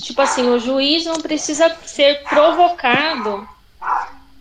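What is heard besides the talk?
small dog barking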